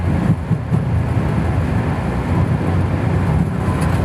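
Loud, steady jet engine roar with a deep rumble, sustained, as an airliner accelerates down the runway for takeoff and its nose gently lifts. No voices are heard.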